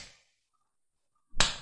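A single sharp, fleshy smack of a hand slapping a leg lands after a short silence, fairly loud, with a brief decaying tail, recorded with a Zoom H4n. A fainter similar hit fades out at the start.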